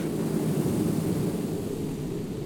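A steady, heavy engine drone of an aircraft coming in to land, a deep continuous rumble with a faint airy hiss, holding level throughout with no voices.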